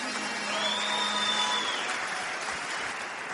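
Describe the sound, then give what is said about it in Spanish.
An audience applauds the speaker's sponsors: a dense wash of clapping that holds at an even, fairly loud level for a few seconds before easing slightly at the end. A faint high tone hovers briefly in the background. “Entonces, un aplauso para mi línea de auspicio.”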